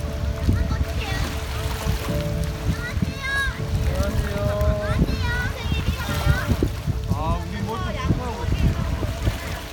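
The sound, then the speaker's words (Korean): Children shout and call out in high voices while water splashes steadily around them, a lively, continuous outdoor scene of kids playing in the Nakdong River at a water sports facility run by Dalseong County, where the water is visibly full of green algae. “한눈에 보기에도 녹조가 많은데 어린이들은 물놀이를 즐기고 있습니다.”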